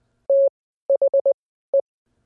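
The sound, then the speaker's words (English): A steady, clear Morse code tone beeps out the word "the": one long dash, then a quick run of four short dots, and after a pause a single final dot, with no other sound. “When you put those series of dots and dashes together, you're not just hearing, you're hearing the word the.”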